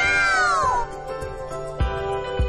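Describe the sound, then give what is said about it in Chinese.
A cat gives a drawn-out meow that slides downward in pitch, then fades into a steady tonal hum punctuated by two soft low thumps. “哇，毛线球滚得好远哦！喵喵！”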